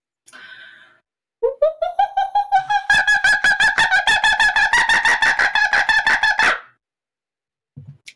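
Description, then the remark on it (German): A person imitates a kookaburra's laughing call: a rising hoot breaks into a long, rapid run of loud, evenly spaced cackling whoops lasting several seconds, followed by a short quiet moment. “Das war ein Vogel? Kookaburra.”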